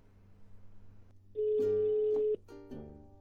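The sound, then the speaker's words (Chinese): A telephone ringback tone while calling a giveaway prize winner: a single steady, mid-pitched beep lasting about a second, loud against a low background hum, with no one speaking. “那接下来让我们拨通一下电话啊，让我伪装一下。”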